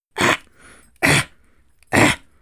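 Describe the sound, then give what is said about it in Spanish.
A voice imitates the hacking kennel cough of four sick dogs, Lola, Balam, Kobe and Rodrigo: three harsh, raspy bursts evenly spaced about a second apart, loud, with only faint breathing in between. “le tocó sufrir la tos de perrera de Lola y Balam y todo fue tan contagioso porque Kobe y Rodrigo”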